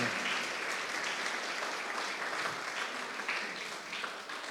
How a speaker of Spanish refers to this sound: Gloria a Dios. Dale un aplauso a Cristo. Amén. Amén.